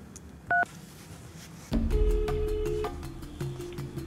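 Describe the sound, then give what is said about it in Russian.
A single short touch-tone beep from a phone keypad as a phone number is dialed to call someone back, then a louder, sustained stretch of noisy sound with steady tones running through it. No one speaks. “Поэтому на всякий случай я ей перезвоню.”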